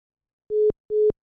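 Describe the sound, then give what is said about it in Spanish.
A dropped WhatsApp call gives way to a telephone tone: steady, mid-pitched beeps of about a fifth of a second each, repeating at an even pace, clear and fairly loud with no voices. “Se perdió, Hugo. ¿Sigues ahí?”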